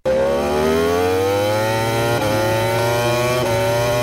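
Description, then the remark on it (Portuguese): A racing motorcycle engine at the Macau Grand Prix motorcycle race revs loudly and steadily, its whining pitch climbing as it accelerates, with brief dips around gear shifts. No voices are heard. “A corrida de motos do Grande Prémio de Macau foi cancelada devido a um aparatoso acidente, que envolveu seis pilotos, deixando três lesionados.”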